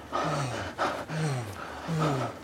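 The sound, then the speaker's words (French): Three heavy, breathy gasps in quick succession, each with a falling voiced moan, fairly loud, following one another at a rapid, even pace with no talking. “Pendant le sexe, les tensions musculaires et artérielles augmentent, le rythme de la respiration s'accélère.”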